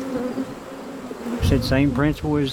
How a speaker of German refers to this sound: Und so machen sie nicht einfach nur Honig, sondern züchten auch Bienen, besonders widerstandsfähige wegen des Klimas.